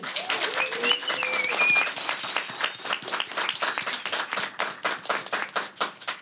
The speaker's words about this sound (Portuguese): E eu tô aqui com uma plateia maravilhosa. Agora é palmas pra plateia!